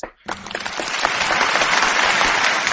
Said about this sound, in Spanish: Y el Oscar va para Russell Westbrook por las tortugas ninja vuelven en 3D. Bueno, un aplauso.